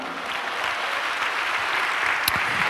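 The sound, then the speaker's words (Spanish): A church audience claps steadily and continuously in applause for Christ during a sermon, a dense wash of many hands at a fairly loud, even level, with no voices standing out. “Dale un aplauso a Cristo, hermano.”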